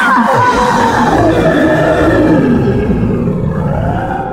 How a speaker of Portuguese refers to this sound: Uma gargalhada de deboche e cinismo, seguida de vários urros que fez todos pularem ao mesmo tempo e correrem para dentro da casa à procura de um abrigo que fosse mais seguro.